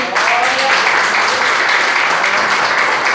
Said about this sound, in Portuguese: E as palmas que adoram ao Senhor Jesus. Amém?